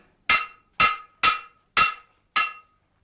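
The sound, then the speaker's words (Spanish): A man bangs a hammer: five sharp blows at a steady, fairly quick pace, each a loud metallic strike with a short ringing decay, with no talking over them. “por favor, diga usted a ese hombre que envuelva el martillo en un pañuelo. Es imposible entenderse así.”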